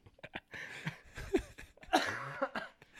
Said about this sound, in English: Keep coughing, sorry